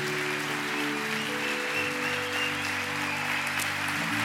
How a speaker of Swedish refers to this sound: Ska vi ge Gud en applåd just nu i förskott? En förskottsapplåd.